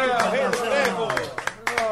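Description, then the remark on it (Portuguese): Scattered hand claps, several sharp hits at an uneven rhythm, ring out alongside a prominent voice talking or singing loudly in the foreground, as people at someone's home applaud at the close of a medley (pupurri) performance. “Palmas pro …, rei!”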